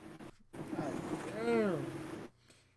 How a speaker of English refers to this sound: Damn, bro. I'm fucking PlayStation It's loud as a motherfucker. you hear this shit, right? Oh, yeah. I just booted this bitch up.